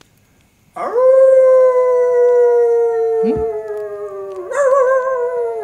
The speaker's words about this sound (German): Ein, äh, nicht nur ein, sondern du würdest schon sagen so vier, fünf Kojoten. Mm. Und das Heulen wird immer lauter.